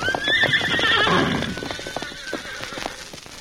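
A horse, Victor, whinnies loudly and shrilly for about a second, its cry wavering, with steady hoofbeats clip-clopping underneath and continuing after the neigh fades. No one speaks.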